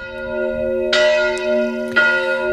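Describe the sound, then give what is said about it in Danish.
A single Danish church bell tolls loudly, struck twice about a second apart, each stroke adding to a rich, sustained metallic hum that lingers between strikes. “Jeg skal ikke kunne sige, om alle Danmarks 4.000 klokker var i brug, men øh, bare en enkelt kirkeklokke kan der jo være smæk på, som du kan høre her.”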